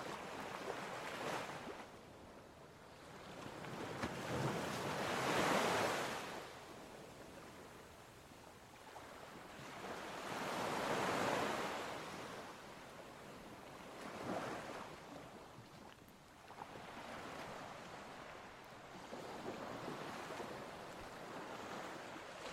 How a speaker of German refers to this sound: Dein Atem passt sich dem gleichmäßigen Rauschen des Meeres an.